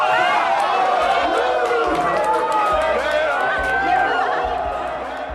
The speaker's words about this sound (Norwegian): Og når publikum skal juble fram en vinner, er det ikke i tvil.